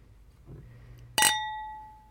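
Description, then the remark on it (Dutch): A single sharp clink of a glass bottle tapping against a glass for a toast, clear, its bright ringing tone lingering and slowly fading. “En de fles natuurlijk.”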